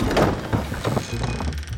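A door swings or slides open, a sustained scraping, rumbling movement lasting about two seconds with a faint tonal creak, heard alone without any voices.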